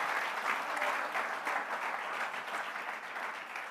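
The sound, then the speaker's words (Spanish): Steady applause from an audience, given as applause to the Lord during a church service, many hands clapping continuously at an even, moderately loud level with no voices standing out, lasting a few seconds. “Cuando da un aplauso al Señor?”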